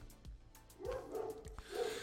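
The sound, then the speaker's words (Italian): A neighbor's dog barks in a few quick bursts, about three sharp woofs in two seconds, sounding somewhat muffled, with no one speaking. “scusate il cane, eh, che non è il mio”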